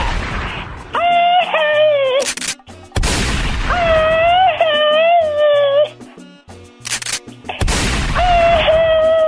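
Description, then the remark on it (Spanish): Loud, booming gunshot effects go off three times, about three seconds apart, each followed by sustained wavering, whining tones that fill the gaps between shots. “Después de ese disparo, ¿sabes cuál te debería de tocar?”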